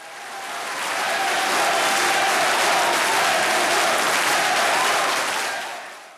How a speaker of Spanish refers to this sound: Los aplausos duran más de un minuto y enseguida se empieza a escuchar esto.